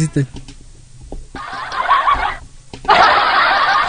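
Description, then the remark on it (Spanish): A canned laugh track plays in two loud bursts of crowd laughter, separated by a brief pause, following a few short clicks and murmurs at the start. “La risa grabada, mano.”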